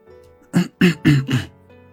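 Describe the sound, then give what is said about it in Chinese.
Someone clears their throat in four quick, rasping bursts in a steady rhythm. The sound is fairly loud and stands alone, with no talking around it. “他微微清了清嗓子，努力的定了定神，想掩饰住自己之前的那个情绪，也为了在这样片刻的时间内，想出一个怎样的开场白。”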